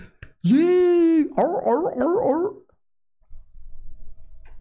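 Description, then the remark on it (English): A loud, sustained whoop rings out from an audience, then breaks into a run of warbling yelps and hollers before fading to a low background murmur. “you hear the audience like a bunch of trained seals,”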